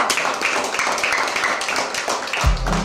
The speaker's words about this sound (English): Clap for her.